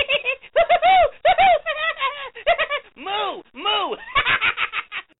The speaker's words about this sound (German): Die Kuh ist nicht nur dick und süß, sie kann auch lachen.